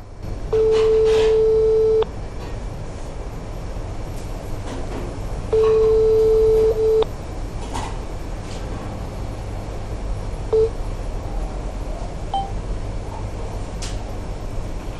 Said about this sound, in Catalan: Doncs si vols, te truqui i escoltem el que, el que diu eh, el teu contestador, ah.